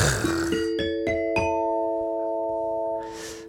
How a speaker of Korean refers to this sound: 이거 사실 공짜 너무 좋아하면 안 되는데 제가 딩동댕을 너무 드리고 있는 거 아닌가 싶네요.